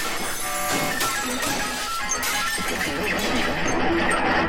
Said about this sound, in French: Papy, qui n'avait rien vu, se retourne et en baissant sa canne, fracasse le vieux lustre en cristal de mamie qui s'écroule en mille morceaux au sol dans un fracas effrayant.